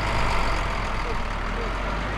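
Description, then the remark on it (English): A steady, low rumble of heavy truck engines idling at a protesters' blockade at the Dorohusk border crossing in northeast Poland, just after 9 p.m., as five trucks are allowed to pass; continuous and even for the whole stretch, with a faint murmur of background voices mixed underneath. “It's just after 9 p.m., and he and two other Polish protesters are finally allowing five trucks to pass their blockade.”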